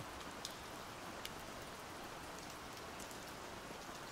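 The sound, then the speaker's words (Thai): Steady rain falls in a dense, even hiss, with occasional sharper drops pattering on a surface. No voices, just continuous rainfall at a moderate, unchanging level. “ทั้งที่วันนี้ฝนตก แต่ก็ไม่รู้ว่าเพราะอะไร คุณรู้สึกคิดถึงคาเฟ่แห่งนี้ขึ้นมาจับใจ”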